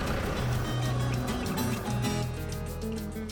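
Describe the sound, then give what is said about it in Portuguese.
A car engine drones steadily, a low humming motor with shifting pitch and road rumble, continuous for a few seconds with no one speaking, as the car carries students from a rural smallholding to school. “E é por isso que outros alunos que já estão aqui por perto também vêm chegando, vão entrar no mesmo carro, vai todo mundo estudar.”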